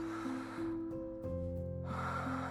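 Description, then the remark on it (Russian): A long, airy deep breath drawn in, rising over a sustained low musical tone, with the rushing air fading partway through and returning near the end. “Ты делаешь глубокий вдох”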